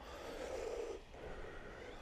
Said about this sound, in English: Now, the breath you're creating is special. Ujjayi breath. The hallmark is it has sound, it comes from your throat.